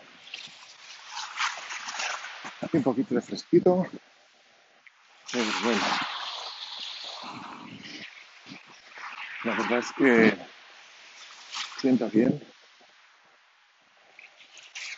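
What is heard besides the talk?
sea waves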